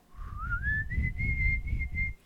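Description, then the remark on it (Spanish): Whistled notes climb steadily upward, starting low and rising step by step before settling on a sustained high pitch. The clear, continuous tone stands alone over a soft low rumble. “Y alguien dijo, el sonido es como que do, re, mi, fa, sol, la, do.”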